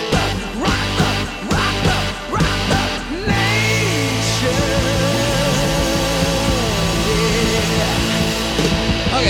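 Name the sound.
rock song played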